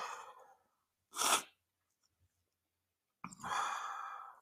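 A single sharp, breathy sneeze bursts out after a short inhale, followed by a pause and then a long, drawn-out exhale like a sigh. Fairly loud, with no speech.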